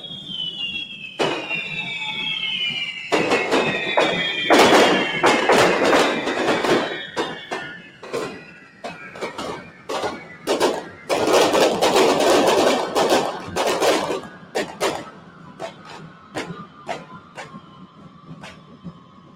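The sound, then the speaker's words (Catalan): Fireworks ignite in a loud, dense barrage of sharp cracks and bursts of sparks, set off together to fill a town square with fire and sparks, with long descending whistles sliding underneath for the whole stretch, with no talking. “Més foc, una altra encesa, conjunta, tornem a omplir la plaça de foc i d'espurnes, Uah!”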